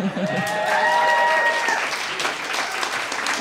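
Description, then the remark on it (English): An audience applauds steadily for a few seconds, a dense, even wash of many hands clapping at a fairly loud level with no voices standing out. “would ask that the applause sign go up.”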